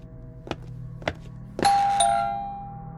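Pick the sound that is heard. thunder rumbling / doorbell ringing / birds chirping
doorbell ringing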